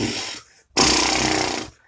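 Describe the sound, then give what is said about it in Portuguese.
A vocal warm-up exercise: a short breathy, buzzing burst, a brief gap, then a longer and louder rasping exhalation, with no talking around it. “eu venho aqui, gravo, gasto um tempo, gasto alguns pensamentos, algumas coisas, alguns exercícios para poder falar bem, tipo.”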